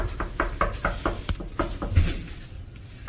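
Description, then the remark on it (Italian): A rapid series of knocks on a hotel room door, about a dozen sharp raps in quick succession, moderately loud, then fading into a low background rumble. “credo che bussa alla porta”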